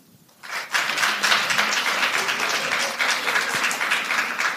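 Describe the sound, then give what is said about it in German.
A crowd breaks into sustained applause after a brief quiet start, many hands clapping in a dense, steady patter that holds at an even, fairly loud level to the end. “Kann ich mal bitte von den Lesben, die da sind, mal einen Applaus kriegen für die, die Lesben nicht gut finden?”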